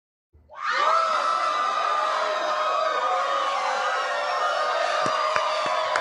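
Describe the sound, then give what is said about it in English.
A loud, sustained burst of crowd noise, many voices whooping, hollering and cheering together at once, starting abruptly and holding steady for several seconds like a studio audience going wild: a sitcom hooting-and-hollering sound effect. “I think it was meant to be sitcom hooting and hollering.”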